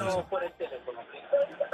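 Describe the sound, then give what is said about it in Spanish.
A radio plays in the background of a caller's phone call, with a voice speaking in bursts over a thin, band-limited background, sounding tinny. “bájame el radio, ahora, bájame, el radio, por favor. Para que te podamos escuchar.”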